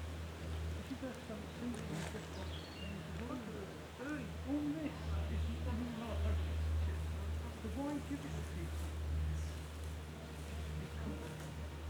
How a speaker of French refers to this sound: Tiens, tu as vu, tu entends l'avion là Ouais. Ben, tu l'entends comme une musique.